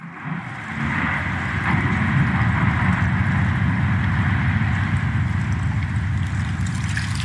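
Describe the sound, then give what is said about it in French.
A massive chunk of glacier crashes into the ocean, a deep, roaring rumble that swells after the first second and churns on steadily with rushing water, loud and unbroken. “C'est le bruit d'un énorme morceau de glacier qui tombe dans l'océan.”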